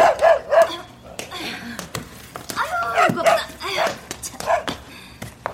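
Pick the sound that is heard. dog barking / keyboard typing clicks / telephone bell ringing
dog barking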